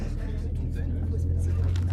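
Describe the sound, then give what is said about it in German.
A bus engine idles at a stop, a steady, loud low rumble with a constant humming drone that holds for two seconds, while faint murmuring voices sit underneath. “fast wäre der Bus ohne dich gefahren.”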